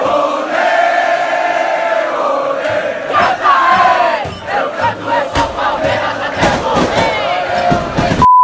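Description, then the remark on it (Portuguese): A large crowd of Palmeiras football fans chants in unison, loud and sustained, with rising cheers and shouts swelling through the chant and sharp bursts of noise near the end. “Parabéns a você que é palmeirense e a toda a torcida do Palmeiras por esse grito e por esse grito que estava tá engasgado aí há 22 anos.”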